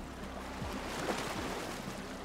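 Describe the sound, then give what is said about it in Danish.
A boat's low engine hum idles while water laps and splashes steadily against the hull as the boat comes into a harbour in Denmark after a sailing race, a continuous wash of sound with no voices. “Da sejladsen er færdig, går kvinden over mod en af bådene, som er kommet ind i havnen.”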